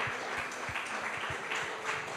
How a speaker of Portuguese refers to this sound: Dê um aplauso forte a Jesus.